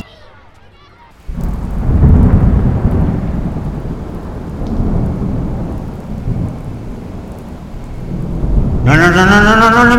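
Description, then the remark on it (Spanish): After a brief quiet moment, loud rolling thunder breaks out over a steady downpour of rain, rumbling on continuously; near the end, a person's voice begins speaking over the storm. “mandes a una puta tormenta, joder.”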